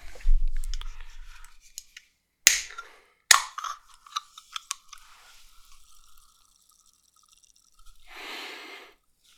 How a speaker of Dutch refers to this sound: Ik ga het eh, blikjes openmaken.